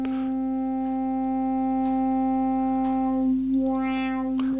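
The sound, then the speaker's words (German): A steady, buzzy synthesizer tone drones on alone while a knob is turned to sweep the resonance frequency of a low-pass filter, its bright whistling peak briefly rising and falling near the end. “Tiefpassfilter hat vielleicht jeder schon mal aus dem Techno gehört, weil so ein Filter eine Resonanzfrequenz hat, die man einstellen kann.”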